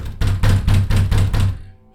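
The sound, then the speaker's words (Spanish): Six loud, heavy knocks on the wooden door of a farrier's house late at night land in quick, steady succession, each a booming thud, then fade into quiet with no voices. “Dios nos guarde, pero qué golpes. ¿Quién llama?”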